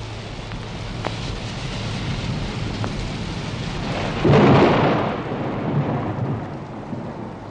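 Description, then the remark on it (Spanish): Steady rain hisses throughout a rainstorm, with a few sharp drips, then a deep rumble of thunder swells up midway and rolls off slowly beneath the downpour. No voices. “Y terminó al fin de llover, y salió el sol, y apareció el arco iris”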